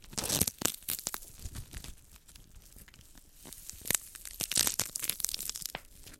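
Crisp, juicy crunching of cabbage leaves being crushed and torn to make music with the vegetable, in irregular loud bursts of crackling with a quieter stretch in the middle and no voices.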